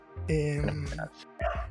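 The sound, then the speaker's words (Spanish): A dog outside a window lets out two loud barks, a drawn-out one followed by a short pause and a quicker second bark, with nothing else going on. “Acabo de ladrar uno fuera de mi ventana.”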